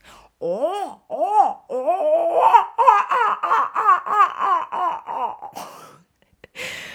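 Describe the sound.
A woman imitates a seagull with her voice: a few drawn-out, arching cries, then a quicker run of repeated yelping calls, fairly loud, ending with a breathy pause.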